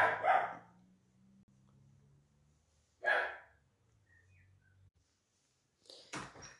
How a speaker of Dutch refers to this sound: Zo, ik werd eventjes onderbroken door een eh, blaffend hondje, maar daar ben ik weer.